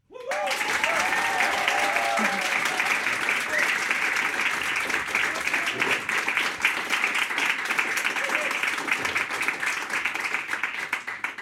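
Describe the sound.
Sustained applause from an audience at the Kulturhaus Odeon by the station in Bruck, Aargau, welcoming the guest, a bassoonist: a dense wash of many hands clapping at a steady, loud level for over ten seconds, with some faint cheering or voices mixed in near the start.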